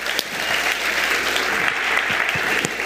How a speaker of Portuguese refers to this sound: Senhoras e senhores, palmas